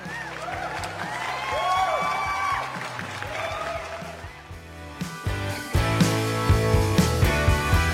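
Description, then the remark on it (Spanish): A loud burst of crowd applause mixed with cheering and whoops, welcoming a guest, giving way after a few seconds to rhythmic music with steady beats. “Ella nos dará más detalles a continuación, por lo cual la recibiremos con unos grandes y fuertes aplausos.”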